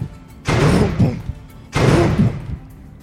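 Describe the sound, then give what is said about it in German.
Two heavy, booming thuds strike the other side of a wooden gate about a second apart, each one loud and resonant with a short rumbling tail, and no voices alongside. “An der anderen Seite des Tores hört ihr ein Rumpum”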